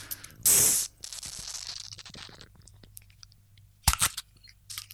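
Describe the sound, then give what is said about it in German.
Crinkling of paper wrapping on a beer bottle as the bottle is being opened: a loud rustling burst, then a stretch of softer crackles and rustles, and a few sharp crinkles near the end. Nobody speaks. “so, ich mach's jetzt mal auf. Ah, man hört das, man hört das Papier.”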